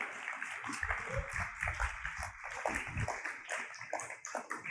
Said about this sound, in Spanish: algún amén, hermanos, un aplausito, una aleluyita.